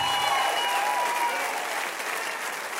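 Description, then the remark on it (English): A crowd that was told to clap claps steadily, dense overlapping applause filling the whole stretch at an even loudness, with a few faint cheers and whistles threaded through it. “I know you were told to clap, and I don't even care. I still love it.”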